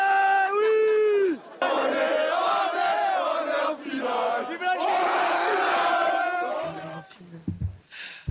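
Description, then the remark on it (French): A loud crowd of French fans cheers and yells in celebration of a France team victory, with a high sustained shout at the start, then a dense roar of overlapping voices that thins out toward the end. “Ah, quelle joie, quelle bonne ambiance.”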